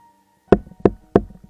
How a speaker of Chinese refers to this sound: 有没有人在啊？廷玉轻敲着冰箱，煞有其事地问着。